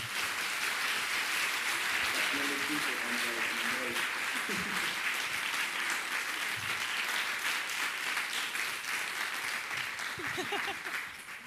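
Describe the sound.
An audience applauds steadily for over ten seconds, a dense, even wash of many hands clapping at full volume, with faint voices briefly audible beneath it.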